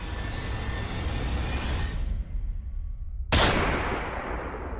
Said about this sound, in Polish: Kiedy sąsiedzi słyszą odgłos wystrzału, nie mają wątpliwości.